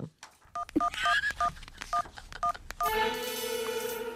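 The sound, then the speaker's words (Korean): A man picks up the phone and dials a call: a quick run of about seven or eight keypad tones beeps in a steady rhythm, each short dual-pitched note clear, then a telephone ringback tone takes over and holds to the end. “남편은 별 대꾸 없이 씨 웃더니 전화기를 들대요.”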